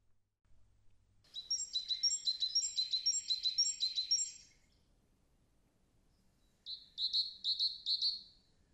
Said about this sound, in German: Über der stillen Welt der einsame Ruf eines Vogels. Auch er muss warten, bis er wieder singen kann.